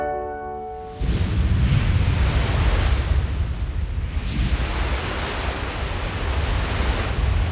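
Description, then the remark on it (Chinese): Ocean waves wash onto the shore in a steady, loud roar, with two big swells surging in about three seconds apart. A short chiming tone plays just before the surf begins. “诶，这个声音很常听到。而且只要有靠海边的故事，都会听得到。”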